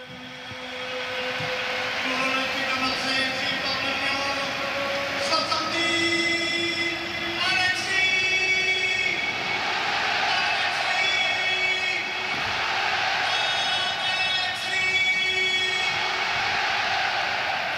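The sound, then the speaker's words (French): A large stadium crowd at a football match roars in a sustained ovation for a player, loud and unbroken for the whole stretch, with drawn-out whistles or chant-like tones riding above the broad cheering. “écoutez l'ovation.”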